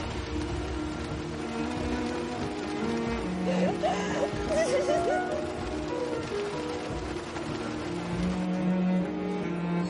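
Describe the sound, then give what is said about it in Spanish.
Heavy rain pours down in a dense, steady hiss that fills the whole scene, with a faint melodic voice or music drifting through the downpour midway. “H comienza a caminar bajo la torrencial lluvia.”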